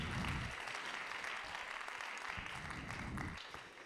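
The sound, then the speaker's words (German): An audience claps steadily for about four seconds, a dense, continuous patter of many hands that stays fairly loud before tapering off slightly at the end; no one speaks. “Bill Johnson sagt damals, ich predige besser als ihr klatscht.”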